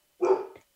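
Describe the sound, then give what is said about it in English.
A single sharp dog bark, loud, rising quickly and trailing off in under half a second, with no talking around it. “sorry for my dog”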